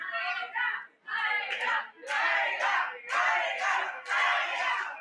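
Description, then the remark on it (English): A large arena crowd roars and chants in loud, rhythmic bursts, swelling and dipping every second or so as fans cheer together for a favorite wrestler. “A partisan crowd, a clear favorite.”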